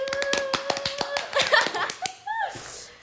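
Brisk, steady hand claps ring out for about two seconds over a high, sustained vocal cheer, followed by a brief rising voiced exclamation, as the DJ opens the a band's radio show.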